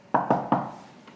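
Three sharp knocks on a door in quick, even succession, each with a short hollow decay, followed by a fainter fourth tap; no voices. Someone is knocking on the door before going in.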